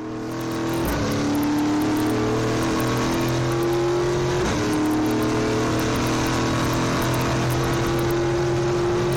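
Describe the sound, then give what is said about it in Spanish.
A race car engine accelerates hard down a straight, its loud buzzing roar climbing in pitch, dropping briefly at two gear changes before rising again. No one speaks. “Escuchen qué bonito la recta.”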